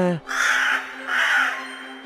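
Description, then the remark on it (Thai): A crow caws twice in quick succession, loud, harsh and raspy, with a brief snippet of voice just before the first call. “อีกาได้ฟังแล้วก็รู้สึกไม่เห็นด้วย มันจึงตอบไปว่า”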